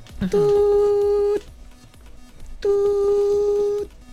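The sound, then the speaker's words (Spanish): Two long, steady telephone tones, each about a second, separated by a pause like a line ringing when placing a call, loud and clear over faint background noise. “No, eso es cuando yo hago una llamada.”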